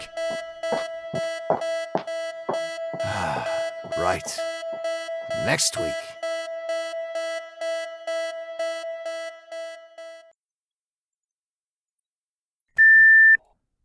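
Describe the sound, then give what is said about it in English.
A fire alarm sounds a steady, piercing tone with rapid rhythmic pulsing for about ten seconds while a person sighs and speaks over it, then it cuts out and a single short beep follows. “Do you expect us to stay in here while the fire alarm is going off?”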